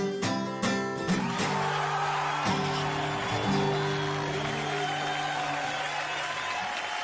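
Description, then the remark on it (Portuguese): A crowd applauds steadily throughout, a dense wash of clapping heard behind music with several sustained, ringing notes and a few sharp struck accents near the start. “agora saiu os aplausos, né?”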